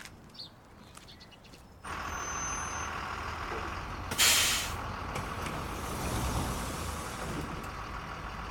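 A large city bus idles and rumbles, then lets out a sharp hiss of its air brakes as it stops, with the engine drone continuing steadily afterward.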